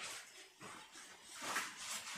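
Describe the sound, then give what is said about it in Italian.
A faint dog howl rises and falls over a steady background hiss, with a few wavering whine-like swells and no one speaking. “Ho sentito un ululato.”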